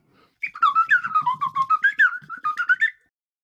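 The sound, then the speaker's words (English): A slide whistle plays a rapid run of sliding, chirpy notes mimicking a northern cardinal's call, loud, in a continuous burst of about two and a half seconds with no talking. “Now that I've found my slide whistle, I mean, we basically have free bird calls whenever we want them.”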